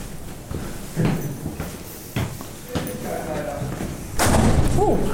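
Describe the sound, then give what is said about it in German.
A few dull thuds against a closed door, spaced irregularly over a few seconds, with a heavier, louder bang near the end amid faint background voices. “Die Tür war zu.”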